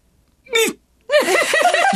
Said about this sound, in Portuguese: Juro, não foi um choro, foi um soluço.